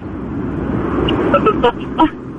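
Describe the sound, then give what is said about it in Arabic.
Steady, muffled wind roar inside a moving car, heard over the phone line of a caller driving and talking via Bluetooth during a Mix FM radio call, a constant low rush throughout, with a few brief voice fragments poking through near the end. “الحمد لله تمام ماسكه خط صوت هواء”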